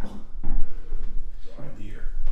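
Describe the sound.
A few dull, hollow knocks, like a head bumping into a mounted deer head, land amid ongoing talking, each impact short and close-sounding with a woody clunk.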